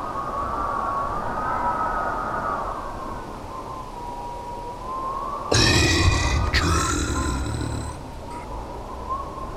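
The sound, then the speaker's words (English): Wind howls through a storm in a steady, wavering moan that rises and falls slightly, broken midway by a harsh, rasping burst of a couple of seconds. “The wind howls.”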